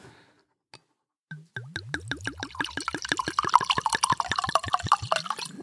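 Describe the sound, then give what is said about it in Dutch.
Wine glugs out of a bottle into a glass, a quick run of rhythmic gurgling pulses that speed up and rise in pitch as the glass fills, clear with no talking. “Oké, zal ik dan maar nu eh, schenken?”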